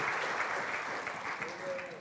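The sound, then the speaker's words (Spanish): A crowd claps steadily and densely for the Lord for the full two seconds, a loud, continuous wash of applause with a few voices calling out faintly underneath. “Si Dios está libertado a ti también, dale el aplauso al Señor.”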